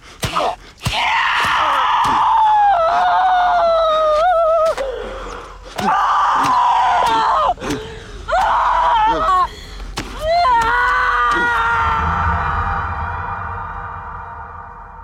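Loud, anguished screaming and wailing in several long, strained cries with brief breaks, sharp knocks between them, and a man's lower groaning, muffled by a blanket, that fades out at the end, in a scene where the Zodiac killer stabs the man.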